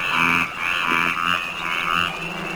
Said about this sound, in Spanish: Escucha ese sonido. Es una rana arborícola nocturna. Parece como si la luz de la luna en la selva hiciera que la rana de árbol yucateca se ponga a croar con más intensidad.